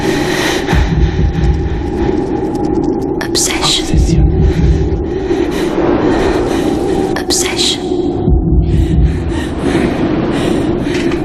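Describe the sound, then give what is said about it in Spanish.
A voice imitates the heavy, exaggerated breathing of a perfume advert for Obsession, with breathy whispered sounds and three strong puffs of air spaced a few seconds apart. “Y siempre respirando fuerte, qué barbaridad, es verdad.”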